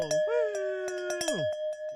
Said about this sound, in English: Do we have our bell? We sure do. It's time for the death toll.